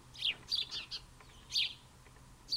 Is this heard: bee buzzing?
no